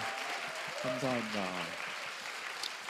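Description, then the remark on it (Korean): A crowd claps steadily for Chinese fans who came to Korea to study, in a dense wash of applause that lasts throughout, while a voice calls out briefly over it near the middle. “박수 한 번 좀 부탁드립니다.”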